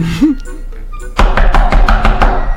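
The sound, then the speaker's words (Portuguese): Someone knocks on a bathroom door, a quick, steady series of about seven loud, hollow thumps, after a brief quiet moment with faint background sounds. “Levantou da mesa e foi até o banheiro e bateu na porta.”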